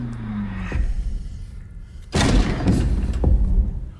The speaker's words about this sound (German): Sarah Wayne Kelly hat nichts Besseres zu tun, als sofort diese Scheißtür aufzumachen